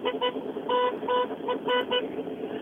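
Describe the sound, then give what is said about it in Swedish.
Two rally cars roar past in a row, their engines producing a loud, buzzing harmonic tone that pulses and surges in quick repeated bursts as they rev. “det två bilar på rad här igen.”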